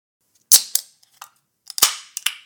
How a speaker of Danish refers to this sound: Det er en uh, lækker sejrsøl, der bliver åbnet her. Uh, fra Granada, skulle man næsten tro. Men uh, den er i hvert fald spansk.